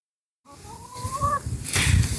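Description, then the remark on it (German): Two hens clucking on an animal sanctuary farm, with a drawn-out rising cackle at first, then a busier burst of clucks and rustling toward the end over a constant farmyard background. “mit vielen verschiedenen Tieren und auch vielen Hühnern zusammen. Und gerade hört man vielleicht Amanda und Grisela.”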